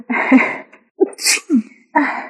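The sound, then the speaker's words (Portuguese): A loud burst of sneezing: a sharp explosive sneeze, a quick sharp inhale, then another sneeze and a final breathy outburst, all with no talking. “Você espirra é tão bonitinho.”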